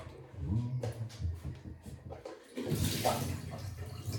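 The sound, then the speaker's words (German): Water pours out in a steady, splashing stream that builds into a broad rushing wash, following a moment of low clattering and handling sounds, as water is emptied out. “Und das Wasser noch.”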